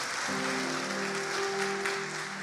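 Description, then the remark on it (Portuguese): A church audience claps steadily for Jesus in a dense, continuous wash of applause that fills the whole moment, with a sustained low keyboard chord entering just after it begins and holding underneath. “Então dê uma salva de palmas para aquele que é diretou a sua vida.”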